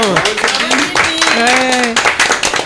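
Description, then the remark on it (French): An audience applauds the invited guest of the show with dense, continuous clapping lasting a few seconds, while voices call out and talk loudly over the clapping. “en tout cas, voilà, on applaudit bien sûr notre invité.”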